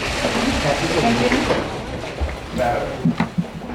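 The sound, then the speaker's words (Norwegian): Outdoor street bustle with murmuring voices outside a courthouse in New York, then a few metallic clunks and knocks near the end as former film producer Harvey Weinstein, with a walker and a newly operated back, climbs the courthouse stairs step by step. “Dette er lyden av Harvey Weinstein, tidligere filmprodusent idet han geberder seg opp trappene til rettsbygningen i, i, New York. Hver morgen har dette skjedd, med gåstol og nyoperert rygg.”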